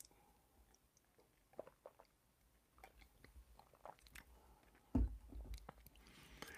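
Someone takes three quiet sips of water from a copper mug, with soft gulping and wet mouth sounds between them, followed by a duller knock near the end. No one speaks.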